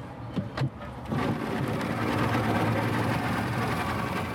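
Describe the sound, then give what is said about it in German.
A motorboat engine churns steadily with a low, droning rumble after a brief quieter start, staying loud without any voices, as the boat travels for a good half hour through the branching river arms of the Niger Delta in Nigeria. “Nach einer guten halben Stunde im Motorboot ruft der Bootsführer plötzlich Hands up, Hände hoch.”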